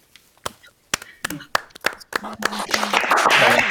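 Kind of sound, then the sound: crowd, applause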